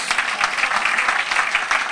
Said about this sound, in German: Es wäre eigentlich ein Klatschen, ein frenetischer Applaus